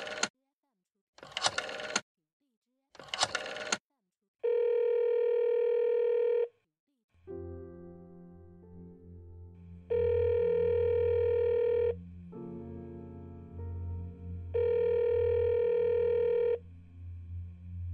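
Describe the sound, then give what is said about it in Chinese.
A telephone dial tone sounds three times in steady, mid-pitched two-second bursts as a call is placed home, following a few short scratchy noises, with a low humming bed rising underneath after the first tone. “他打了电话回家，第一次和父亲聊了几句。”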